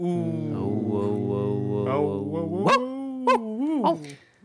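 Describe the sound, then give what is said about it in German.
A person imitates a dog with their voice: a long, drawn-out whining growl followed by a few short, sharp yelping barks, fairly loud, with no other sounds. “Da waren nämlich ein paar Hunde. Oh. Und ich habe da gebellt.”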